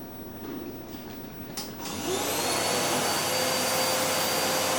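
A vacuum cleaner, about 70 decibels, switches on partway through, its motor whining up in pitch and settling into a loud, steady roar. No one speaks.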